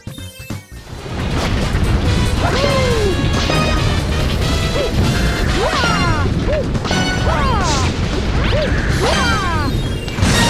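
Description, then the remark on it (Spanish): A series of heavy thwacks from a coconut striking King Caliente in a video game, six hits in all, each ringing out a distinct musical note in the order C, E-flat, F, F-sharp, G and B-flat, spaced a second or two apart over loud, busy game sound. “En total, los sonidos que escuchamos cuando la secuencia se completa, es decir, cuando el coco golpea un total de seis veces para darle la última estocada a King Caliente, son en orden Do, Mi bemol, Fa, Fa sostenido, Sol y Si bemol.”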